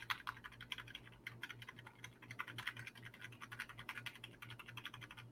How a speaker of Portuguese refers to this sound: esse, esse teu, esse, teu, teclado aí, ele faz um barulhinho, né? Alto, ah, é porque o meu, o meu notebook ele é suspenso, assim, né? E aí eu comprei um, um teclado desses antigos. Aí ele faz barulho mesmo, como todo teclado antigo.